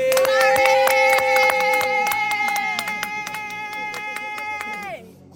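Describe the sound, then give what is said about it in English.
An audience claps rapidly and unevenly while voices shout glory in a loud, sustained, high-pitched cry, then the shouting and clapping cut off abruptly near the end. “If you believe, you can clap and shout glory.”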